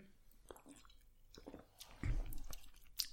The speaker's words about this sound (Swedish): Eh, det verkar vara märket då. Eh, Birra Viva Artigan eh, någonting. Eh, det, den beskrivs som An expressionist raspberry nightmare. En expressionistisk Hallonmardröm. Mm. Nu ska jag ta en klunk här.